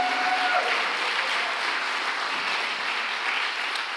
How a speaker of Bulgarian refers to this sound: О, ако ръкопляскаш, ръкопляскаш, като че наистина вярваш, хайде!